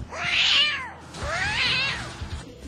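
A cat meows twice in quick succession, each call long, rising then falling, and somewhat plaintive. Fairly loud, with no talking and only faint background noise.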